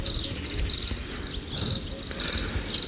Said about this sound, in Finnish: Jaha, ei ole sample. Ei ole haaste sample. Laitetaan sirkat.